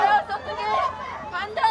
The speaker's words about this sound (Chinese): 南韩首尔则有大批年轻人聚集在日本驻南韩大使馆外抗议，部分人士闯入大使馆，被警方七手八脚抬出来送上警车。抗议者顽强抵抗，面红耳赤，继续大喊诉求。